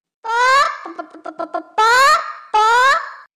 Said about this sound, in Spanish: Yo también tengo que tener paciencia con mis amigas, las otras gallinas, que a veces el gallinero se alborota y vaya la que se arma.